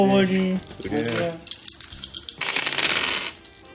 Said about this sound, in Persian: ولی شما تو نقشتون در واقع به شرطی میشنوید که تاسش رو بیارید الان همتون یه تاس بریزید ببینید